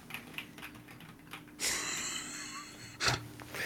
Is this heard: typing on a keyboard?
yes